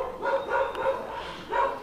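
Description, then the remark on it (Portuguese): Several dogs bark in repeated bursts, about four clustered yelps and woofs over two seconds, moderately loud, with no one talking. “Cachorrada aqui tá, tá de brincadeira. Tá braba.”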